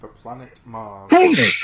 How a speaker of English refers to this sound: Bless you.